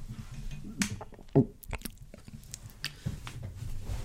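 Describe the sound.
A voice imitates a gulping swallow, with wet mouth clicks and squishy smacking sounds and one stronger gulp in the middle. No words are spoken.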